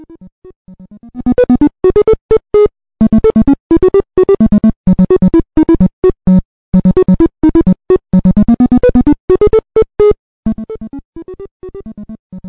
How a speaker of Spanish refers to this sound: Ah, escuchamos, este es otra de Bomberman clásico, ¿verdad?